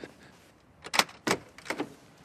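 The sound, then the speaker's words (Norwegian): Three knocks on the parish office door of Vestre Aker church in Oslo, Norway, spaced unevenly over about a second, fairly soft, with quiet ambience and no talking. “Jeg banker på på menighetskontoret.”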